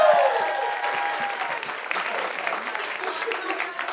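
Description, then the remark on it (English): A live audience at the Hollywood Improv applauds its guests steadily for several seconds, a dense wash of clapping hands with a few brief tonal notes at the start, fairly loud and even throughout. “We'll give it up for our guests.”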